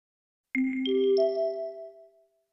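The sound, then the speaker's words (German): A mobile phone rings with a short electronic tune of three rising chime notes that overlap and ring out, fading over about two seconds, with no one talking. “Ist das Ihr Handy?”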